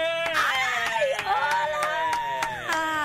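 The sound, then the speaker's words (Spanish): Steady rhythmic clapping from a TV studio audience welcoming a guest actress and host, sharp claps landing on a regular beat, mixed with bright sustained tones like music or cheering voices, loud throughout. “Aplausos para Michelle”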